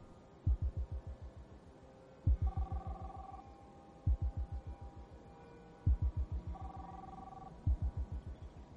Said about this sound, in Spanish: Su móvil comienza a sonar.